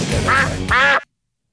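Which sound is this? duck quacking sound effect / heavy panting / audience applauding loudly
duck quacking sound effect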